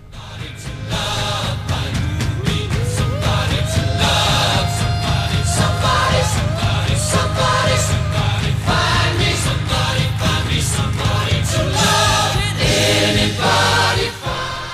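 A rock song plays loud and steady from start to finish, with a male singer's voice soaring over a full band of driving drums, bass and layered instruments.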